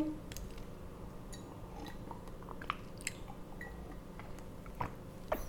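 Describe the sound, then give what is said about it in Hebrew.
Quiet sips of lukewarm water from a huge glass, drunk on an empty stomach: a series of soft, wet mouth clicks and gulps spread over several seconds, ending with a brighter clink of the glass. “והנה, תתפלאו, יש לי כאן כוס ענקית עם מים פושרים ועל עוברה, ואני הולכת ללגום.”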